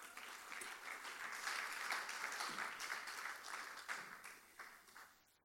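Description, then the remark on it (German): Sustained audience applause welcoming two people back onto the stage, a dense wash of many hands clapping at steady volume for several seconds before tapering off near the end. No speech over it. “Weil sie, ähm, genau, come on, gib mal einen großen Applaus.”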